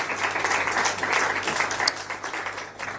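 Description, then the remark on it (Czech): An audience applauds steadily as a guest is invited onto the stage, a dense wash of many hands clapping at an even loudness for the whole stretch, with no voices standing out. “No, to vypadá, že jsi tady vítaný, lidi ti zatleskali.”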